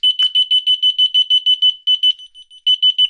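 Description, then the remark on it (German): A small radio locator receiver, the first of a Funk und Nano set, marking a left shoulder and set off by pressing the first button, beeps in a rapid, even series of loud, shrill electronic tones, briefly turning softer and pausing before the quick beeping resumes. No one speaks. “dadurch, dass diese kleinen Dinger so klein sind, aber sie sind eben trotzdem laut genug, als dass ich sie hören kann.”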